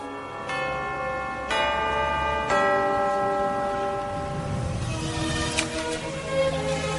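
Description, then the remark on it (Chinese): The clock tower bell of the Jianghan Customs House in Wuhan chimes in slow, evenly spaced strikes, each ringing out with rich, sustained metallic tones that overlap and hum as they fade, with no voices present. “江汉关的钟声，响彻一个世纪。”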